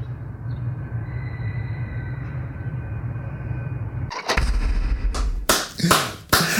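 A steady low engine rumble with a faint high whine, then a sudden louder, harsher roar with surging bursts, like an airplane passing overhead. No one speaks.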